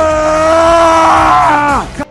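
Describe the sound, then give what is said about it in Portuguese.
A group of men shouting a battle cry together, one loud, sustained roar for about two seconds that drops off sharply at the end, with no other talk. “O grito da é sua masculinidade que está aqui e eles vão retribuir com o grito deles.”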